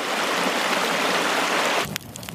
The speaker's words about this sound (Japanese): 川のせせらぎ